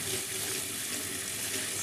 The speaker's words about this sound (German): Einen halben Becher Linsen haben wir, rote Linsen. Und so Abwasch und schön waschen. Einfach im Sieb ein bisschen herum. Ihr seht, da kommt. Es schäumt ein bisschen. Es kommt milchig trübes Wasser rinnt ab. Und genau das wollen wir alles abwaschen.